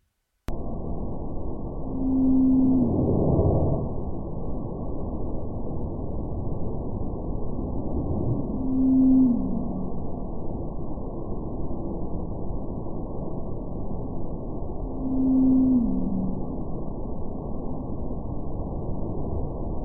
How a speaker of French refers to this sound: Et j'ai amené, donc on entend cette baleine bleue de l'Antarctique, euh, dont le son a été accéléré dix fois pour qu'on puisse l'entendre, puisque sinon c'est trop grave pour notre oreille. Donc on, on entend bien cette vocalisation qui est répétée